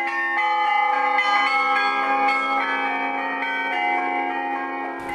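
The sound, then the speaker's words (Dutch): The bells of a carillon that Rembrandt could also have heard ring out in a steady melodic sequence, overlapping tones sustaining and blending into a rich, shimmering wash of pitched chimes, fairly loud throughout with no voices. “Dit geluid, hè? carillon.”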